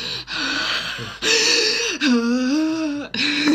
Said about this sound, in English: my my heavy breathing well, from both of us.